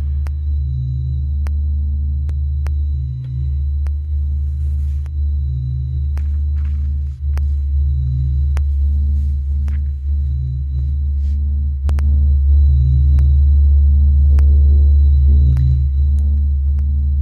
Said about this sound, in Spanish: Nuestros audios hoy están súper abstractos, ¿no? Este, coincidentes con nuestra historia geek. Estamos escuchando al sol. Eh, se, les pusimos el sol hace unos meses cuando por primera vez escuchamos al sol.